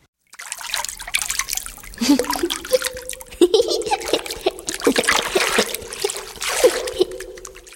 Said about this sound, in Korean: 변기 커버에 자꾸만 물이 튀었다. 화장실에는 욕조도 샤워부스도 없었다.